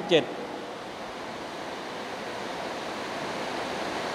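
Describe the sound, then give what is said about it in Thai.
Heavy rain pours down in a steady, dense hiss that fills the whole clip at an even, fairly loud level, with only a short faint sound at the very start. “วันนี้ฝนตกค่อนข้างไม่ไม่ฝนไม่มีหลายวันนะวันนี้ฝนตกทีเดียวเลย”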